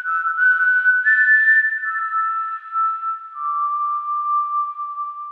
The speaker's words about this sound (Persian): شاخه ها و تنه درخت رو بغل کرده بود نوازشش میکرد و باهاش حرف میزد البته ما الان میدونیم حرف میزد اگه در حال یاد گرفتن زبان درخت نبودیم فکر میکردیم داره سوت میزنه